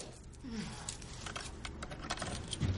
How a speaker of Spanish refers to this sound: Ella abre un cajón.